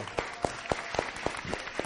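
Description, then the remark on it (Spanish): Audience applause for a guest being given the book Cuentos para soñar y pensar by Charles Perrault, in a steady, rhythmic pattern, sharp claps landing at an even pace with a softer wash of scattered clapping between them, moderately loud throughout. “Un aplauso, por favor.”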